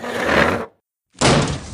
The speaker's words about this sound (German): Okay, mach dich bereit. Ich ziehe jetzt den Stuhl von der Tür weg.